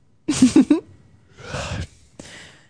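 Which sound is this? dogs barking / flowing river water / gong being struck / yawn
yawn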